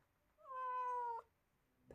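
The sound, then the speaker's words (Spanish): A single drawn-out cat meow, loud, with a steady tonal wail lasting under a second before cutting off into quiet. “Pinche gato.”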